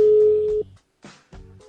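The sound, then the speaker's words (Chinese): A phone call goes unanswered: a steady electronic phone tone plays for about half a second, stops, then after a short gap a ringback-style tone sounds again, with a brief burst of noise between the tones. “的电话没有人接。”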